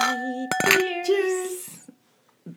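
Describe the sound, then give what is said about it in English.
Glasses clink together in a toast: a couple of sharp clinks with a bright ringing tone that fades over about a second, followed by a few soft knocks. “And there's always some weird noises accompanying the cheers.”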